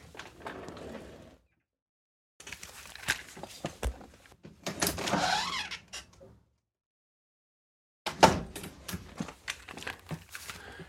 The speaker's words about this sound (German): Ich dachte, mein Nachbar würde wieder die Wand hinter dem PC abreißen. Es saß gerade eine Elster auf der Scheibe und hat hier geklopft.